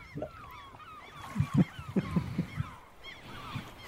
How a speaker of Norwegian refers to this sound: Du kjørte en sånn der måsevignett, så vi tenkte vi skulle bytte et lite tema.